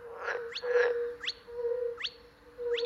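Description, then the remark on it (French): Small green frogs and tree frogs call in a wetland chorus, short rising croaks repeating every half second or so over a steady low hum, with a couple of rougher bursts near the start. “Très vite rejoint par de petites grenouilles vertes et des rainettes.”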